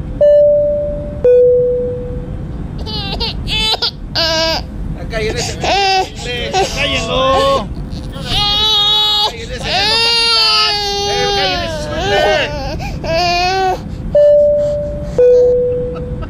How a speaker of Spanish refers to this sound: Eh, eh, con todo respeto a las personas que están teniendo los niños que están llorando, con todo respeto, por favor, de dormirlos o a ver cómo le hacen, porque hay gente que está descansando ahorita en el vuelo.